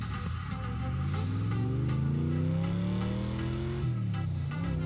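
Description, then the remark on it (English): A car engine revs up steadily as it accelerates, its pitch climbing, then drops briefly with a gear change before pulling again. Loud and continuous, with no talking. “Now pretend like you're driving your car.”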